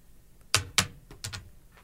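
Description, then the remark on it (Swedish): A die clatters across a hard tabletop in a short burst of sharp clicks, two strong knocks followed by a few lighter taps as it settles, landing on three. No one speaks. “Slå den nu, kasta den nu.”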